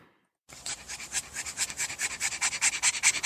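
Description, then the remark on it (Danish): A French bulldog pants heavily after a short walk, a rapid, raspy rhythm of breaths that quickens and grows louder, with no talking over it. “Ja, sådan her lyder det, når en øh, fransk bulldog har gået en kort gåtur og lige skal prøve at fange vejret.”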